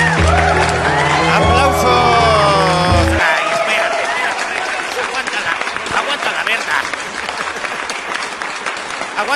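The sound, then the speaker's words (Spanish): A live band from León, Guanajuato, Mexico, plays a final chord that rings out for about three seconds, then the concert crowd bursts into sustained, dense applause with scattered cheers and whoops that continues steadily to the end. “Aplausos para …, esta banda originaria de León, Guanajuato, México,”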